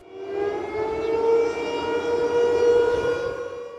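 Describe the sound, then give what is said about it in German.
An air raid siren in Ukraine wails steadily, holding a sustained droning tone for several seconds with a gentle rise and fall in loudness. No voices are heard. “Luftalarm derzeit in vielen ukrainischen Städten in regelmäßigen Abständen zu hören.”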